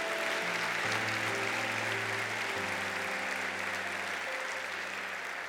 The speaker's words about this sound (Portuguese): Vamos apoiar o irmão empolgado e vamos dar um aplauso.